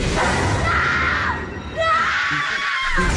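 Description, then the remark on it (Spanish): Loud, high-pitched screaming in two long, wavering bursts separated by a brief dip, with a dense rumbling noise underneath throughout. “Esos gritos no vienen de la calle, vienen del espejo, vienen del espejo.”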